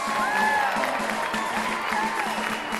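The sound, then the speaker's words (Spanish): A loud crowd cheers and applauds continuously, with whistles and whoops rising over the dense wash of clapping throughout. “Ah, eso merece una ovación, porque si hay, hay una mujer en el programa.”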